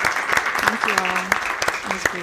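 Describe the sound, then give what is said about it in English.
A round of applause from an audience in the room at the end of a recorded live talk: dense, steady clapping from many hands, fairly loud throughout, with a few sustained voiced calls or cheers rising over the clapping. “Um, I think now is the right time for a big round of applause”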